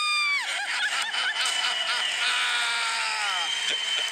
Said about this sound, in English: Count it down. Let's hear a debt free scream. Three, two, one. I'm debt free!